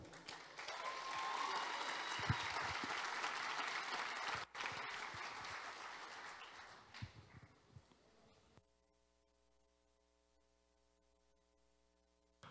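An audience claps together in a loud, dense burst of applause that holds steady for several seconds, tapers off, and gives way to a faint electrical hum.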